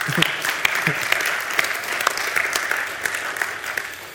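An audience at a service applauds steadily, a dense wash of many hands clapping at an even level for several seconds, with a few sharper individual claps standing out and faint voices mixed in.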